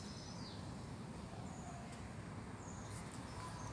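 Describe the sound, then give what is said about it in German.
Faint bird chirps in Erfurt come through in a few brief high calls over a steady, rumbling outdoor background noise with rattling bicycles, with no voices. “Die Vögel twittern und die Fahrrad klappern.”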